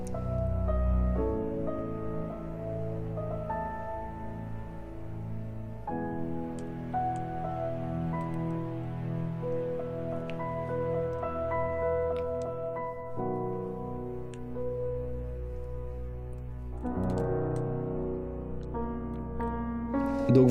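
Slow, sparse solo piano plays soft sustained chords that change every few seconds, each ringing out gently before the next: a minimalist piano version of the Peter Parker theme from Spider-Man. Quiet and intimate, with no voices.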